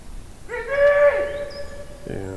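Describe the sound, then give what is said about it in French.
A hunting horn, blown by a woodcock hunter searching for his lost dog, sounds a long, steady brassy note that bends slightly, then a second lower blast begins, ringing out with a reverberant echo through a forest. “Et euh, il cède pour cela d'une trompe de chasse.”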